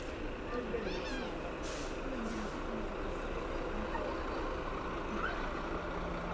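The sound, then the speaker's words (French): A gigantic truck loaded with huge stacked sacks rumbles and comes to a stop across a town square, with sharp hisses of air brakes over a steady low engine drone and faint voices in the background. “Soudain, notre vue est masquée par un camion gigantesque qui s'arrête en travers de la place.”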